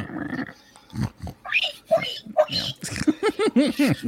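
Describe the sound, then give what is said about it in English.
A person imitates a pig with a run of nasal grunts and squeals, starting with low snorts and ending in a quick series of rising oinks, fairly loud. “this is how low we have come on this show that we are doing pig impressions.”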